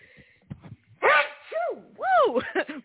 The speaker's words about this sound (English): when I sneeze, I sneeze. May the good God have bless me and you.